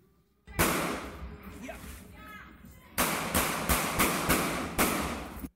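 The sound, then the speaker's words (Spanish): A loud bang is followed by a rapid series of five or six sharp gunshots fired in quick, uneven succession, with faint shouting voices between the first shot and the burst, as two men exchange gunfire over a traffic incident on Avenida Independencia, sector 16 de Agosto. “Sepa que momentos de tensión se vivieron en el sector 16 de agosto de la Avenida Independencia cuando dos hombres se enfrentaron a tiros por un simple incidente de tránsito.”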